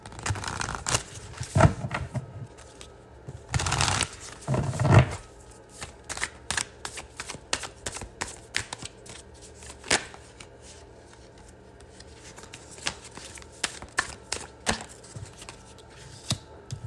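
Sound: cards being shuffled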